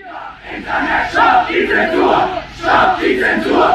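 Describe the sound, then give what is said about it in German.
A large street protest crowd in Germany, demonstrating against the copyright reform, chants in unison, loud, many voices rising and falling in rhythmic surges, with two strong swells of shouting about a second and a half apart. “Insgesamt waren rund 200.000 Menschen in Deutschland auf der Straße, um gegen die Urheberrechtsreform zu protestieren.”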